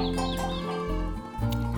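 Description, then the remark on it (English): Mother hens on a farm cluck steadily in a short burst of repeated, throaty calls, moderately loud, with a busy farmyard texture and no talking. “And the mother hens have been very busy.”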